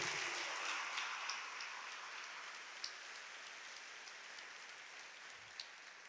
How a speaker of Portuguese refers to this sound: Quem recebe essa palavra? Se é para Jesus, pode aplaudir.